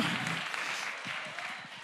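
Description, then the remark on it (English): One side of a church audience claps steadily, dense overlapping handclaps forming a continuous wash of applause with a few sharper individual claps standing out, at a fairly constant level throughout. “I got one side of the church clapping.”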